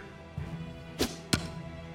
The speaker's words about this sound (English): And with a heavy clank, the scissors dropped onto the desk in front of me, sticking into the wood so they stood straight up.